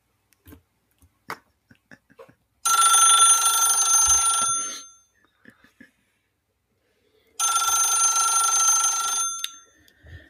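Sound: telephone ringing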